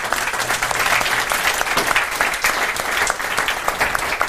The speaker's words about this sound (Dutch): Geef hem een eh, warm applaus.